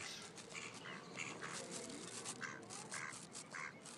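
Several ducks quack in short, repeated bursts over a steady background wash, the calls overlapping, with no one speaking.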